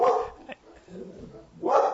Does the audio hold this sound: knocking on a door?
no